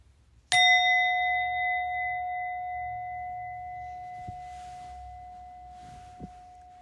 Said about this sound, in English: And I'm going to ring my bell now.